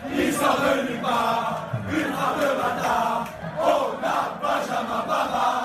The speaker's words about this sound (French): Aujourd'hui, tout le monde connaît son nom, lui qui sort de nulle part, comme le dit la chanson créée par les supporters en son honneur.